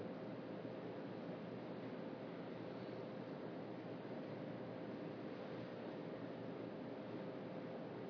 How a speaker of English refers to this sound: You can simply be aware of the sounds hearing the air conditioning, the traffic drifting up from the street below,